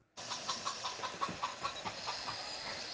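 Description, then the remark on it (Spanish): A hen clucks in a quick, uneven series of short notes that run steadily over a constant hiss of background noise, with no talking. “Estaba la mujer loca con su gallina,”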